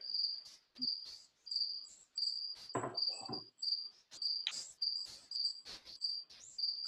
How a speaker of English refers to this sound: Those are legit crickets.